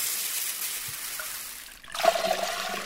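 Water pours steadily into a bowl holding half a cup of rice and half a cup of lentils, set to soak for 20 minutes for khichdi, with a hissy, splashing rush, pausing briefly before a second pour with a brighter, more tonal gurgle as the bowl fills. No talking.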